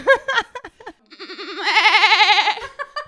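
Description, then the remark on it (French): A person does a loud, wavering goat-like bleat lasting over a second, its voice shaking rapidly in pitch, preceded by brief chatter and followed by a short laugh. “Ça fait deux ans qu'on se connaît, tu sais que je fais hyper bien la chèvre.”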